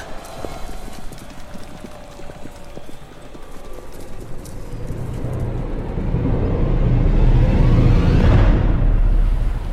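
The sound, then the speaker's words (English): Horses of the Sontaran Legion gallop through mist with clattering, clip-clopping hooves, the rhythm starting softly and swelling into a loud, rumbling thunder of many hooves. “It's horses! It's the rest of the Legion.”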